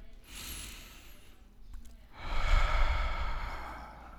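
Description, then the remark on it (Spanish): A slow, deep breath: a soft, airy inhale lasting about a second, a brief pause, then a longer, louder, breathy exhale, with no talking. “Por eso es bueno una agradable y profunda respiración. Vamos a ver, vamos a respirar.”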